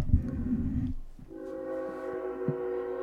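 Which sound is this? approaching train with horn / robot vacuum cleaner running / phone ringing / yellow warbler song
approaching train with horn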